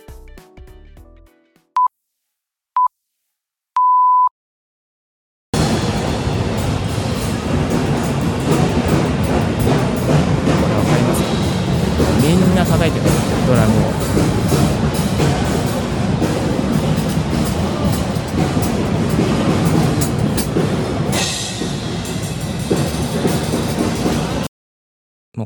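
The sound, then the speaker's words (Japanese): A few short electronic beeps, then a dense, loud wall of many drums being played at once in the drum area of a trade show, recorded while walking through it, with overlapping hits merging into a continuous clattering roar for about twenty seconds before cutting off. “まず1つ目がですね、あのー、このドラムのエリア、ちょっと歩いてみた音をご紹介させていただきます。”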